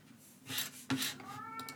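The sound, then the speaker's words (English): A cat in a corner lets out a drawn-out meow near the end, moderately loud, after a few brief scraping and rustling noises. “the cat's meowing like mad in the corner”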